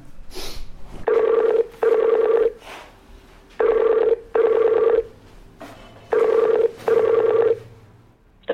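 A phone line's ringing tone repeats as three double rings, each pair of buzzy tones separated by short pauses, clear and steady with no one speaking.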